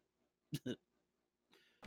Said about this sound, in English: My response got him to laugh uncontrollably and cough.